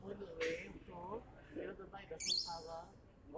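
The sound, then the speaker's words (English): A bird squawks in a few harsh, raspy bursts, with a loud, shrill screech near the end, mixed with wavering calls and voices murmuring underneath. “He's just squawking.”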